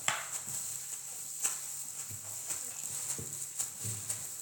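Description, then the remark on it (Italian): Footsteps crunch through grass and dry leaves in a meadow at a steady walking pace, each step a soft rustling thud, fairly quiet against a faint continuous hiss. “arrivò in un prato e iniziò a camminare tra l'erba e le foglie secche.”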